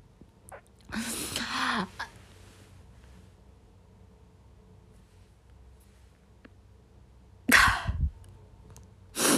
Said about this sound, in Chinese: 我实在是有点扛不住，我都怎么开始打喷嚏了？